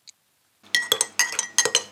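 A spoon stirs coffee in a cup, making a quick series of bright, ringing clinks against the ceramic in uneven bursts, fairly loud, with no voices.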